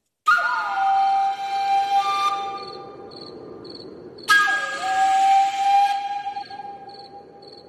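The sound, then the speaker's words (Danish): Breathy Colombian flute music plays alone, fairly loud: two long sustained phrases with airy hiss and notes that slide and waver in pitch, separated by a short gap. “Skal vi ikke fejre det med en deciliter jo. kolumbiansk fløjte?”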